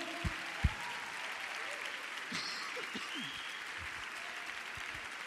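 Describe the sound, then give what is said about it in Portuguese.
An audience applauding steadily, a dense, continuous wash of many hands clapping at an even level, with a few sharper individual claps standing out near the start. “Vamos, não para de aplaudir não.”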